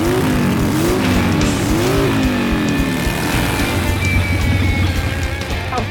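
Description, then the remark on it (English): Loud motorcycle engines of the Rodents motorcycle gang rev and rise in pitch as they roar in, followed by screeching, skidding tires, with a steady mechanical din throughout and no talking. “Here comes Butchie, the leader of the motorcycle gang, the rodents.”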